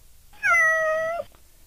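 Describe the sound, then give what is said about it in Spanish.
A single drawn-out cat meow, clear, lasting under a second with a slight rise and fall in pitch, heard alone against a quiet background. “Escribiste, gato.”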